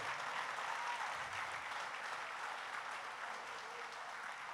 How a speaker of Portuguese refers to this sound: Aplauda mesmo ao Rei da Glória.